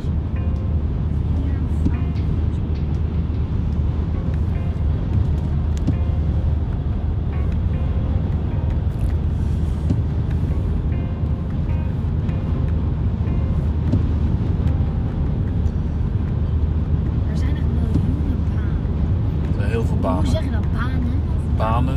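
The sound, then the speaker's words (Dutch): A steady, loud roar of stormy wind with gusts up to 85 km per hour buffets the microphone continuously, dense low rumble with gusting swells throughout, and no clear break for the whole stretch. “Eh, Dit is een wind, ik weet niet wat windkracht 85 km per uur.”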